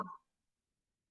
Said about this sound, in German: Entschuldigung, das war mein Hund.